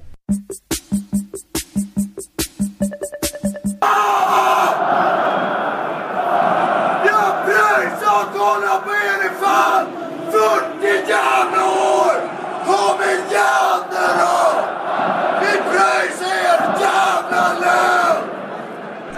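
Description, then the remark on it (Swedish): A man yells angrily from the stands at AIK's home match against Norrköping, ending with the words 'we pay your damn salary', his voice raised and harsh over a dense, roaring wall of spectators, preceded by a few seconds of rhythmic clapping or drum-like beats. “Och, när, när de gör det eh, så kan det låta på ett väldigt speciellt sätt på läktarna.”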